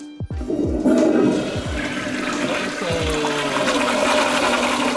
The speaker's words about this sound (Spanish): Flochealo ahora mismo, producción. Flochealo, tíralo para abajo.